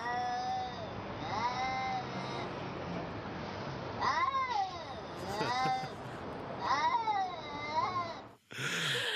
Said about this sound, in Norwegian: Ei misfornøyd katt som skjeller ut ei anna katt!